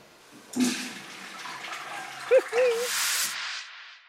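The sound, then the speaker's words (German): A steady stream of water splashes and trickles into a cup, imitating urinating, for about three seconds, loud, with a brief voice sound partway through before the pouring tapers off. “Naja, der strahlt ja dann eben”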